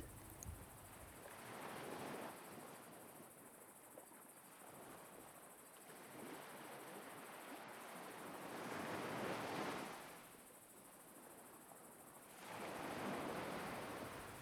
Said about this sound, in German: Du bemerkst nun, dass die Wellen lauter geworden sind als vorhin das Meer ist ganz nah. Du kannst es spüren.